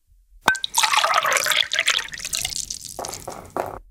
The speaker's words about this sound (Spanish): Agüita o líquido o algo en un vaso.